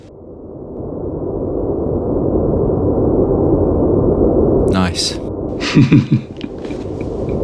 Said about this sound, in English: so what's this one called? Is this a YouTube clip? Celestial white noise. Celestial.